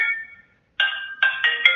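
An electronic phone ringtone plays a tonal chime that fades, pauses briefly, then returns as a series of quick stepped notes, fairly loud with no talking.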